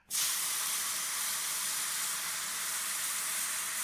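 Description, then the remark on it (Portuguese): A hamburger sizzles on a griddle: a steady, loud, bright hiss that begins abruptly and holds evenly for a few seconds, with no voices and no noticeable crackle or pops. “Barulho de hambúrguer na chapa.”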